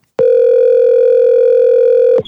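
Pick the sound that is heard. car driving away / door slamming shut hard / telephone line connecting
telephone line connecting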